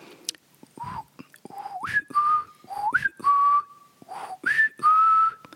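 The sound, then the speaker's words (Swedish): A person whistles a short repeated family call signal, a whistle a father used to call his children and family members: three rising-then-steady phrases with pauses between, each sliding up and holding a clear tone, with breathy noise at the starts. “Han hade en vissling. Eh, både, inte bara till mig, utan till alla barn och familjemedlemmar hade han vissling.”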